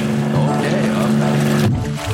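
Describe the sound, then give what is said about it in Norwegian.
A short, loud produced jingle for the 'Rett fra båten' segment, built on a steady low humming drone like a boat motor, with layered tones that cut off abruptly just before the end. “Jeg, trykker på jingleknappen nå.”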